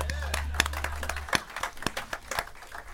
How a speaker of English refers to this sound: And why don't you give yourselves a round of applause?